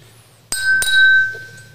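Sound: glasses clinking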